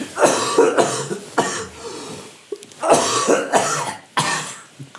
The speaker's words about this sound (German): Ich habe eine wundervolle Idee. Können wir immer, wenn du hustest, dann einen Vocoder-Effekt drüberlegen?